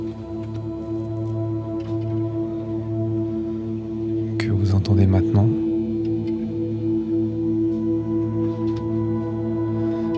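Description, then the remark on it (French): A continuous texture from a wavetable synthesizer, layered humming tones built from small wave fragments recombined very rapidly, shimmering and flowing like liquid, swelling into a brief, brighter burst midway, while a voice speaks briefly over it. “Et donc ce sont tous ces petits morceaux de vagues qui sont recombinés très rapidement pour former euh, comme un liquide sonore”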